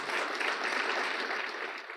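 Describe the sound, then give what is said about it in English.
Steady crowd applause for a former boxing surgeon who is present with his family. A dense wash of many hands claps at an even level for a couple of seconds, easing off slightly at the end, with no voices. “Give him a hand of applause, who's here today with his family.”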